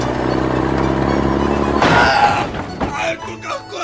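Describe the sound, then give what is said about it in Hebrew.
A heavy truck loaded with matzot drones steadily, then a sudden loud crashing impact as it hits a person head-on in a demonstration, followed by scattered clattering and thuds as debris settles, with faint voice-like sounds near the end. “יצרני המצות טוענים שהן בטוחות לגמרי, אבל בואו נראה מה קורה לבן אדם שנפגע חזיתית על ידי משאית מלאה במצות.”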